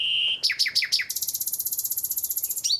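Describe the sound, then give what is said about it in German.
A nightingale sings alone, recorded in spring: a sustained whistle, five quick descending notes, then a rapid, buzzy trill of repeated pulses ending in a sharp rising flick. “Das ist die Nachtigall.”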